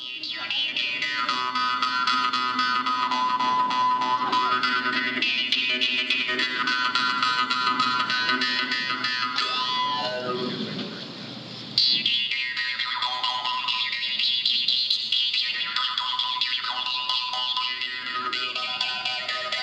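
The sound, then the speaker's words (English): A jaw harp twangs continuously with a buzzing drone and overtones that sweep up and down in a wah-like pattern, loud, with a brief dip midway before resuming. “playing the jaw harp”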